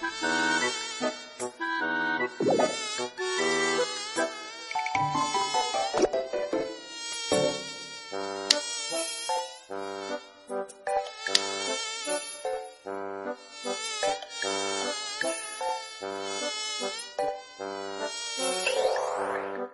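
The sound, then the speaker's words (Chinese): Several mosquitoes whine continuously while circling around a little boy, thin, high buzzing tones overlapping and wavering up and down in pitch, fairly loud and steady throughout with no voices. “几只蚊子就进了他的肚子。”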